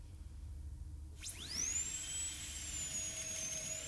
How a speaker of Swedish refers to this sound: Han borrar och du känner att det penetrerar ytan.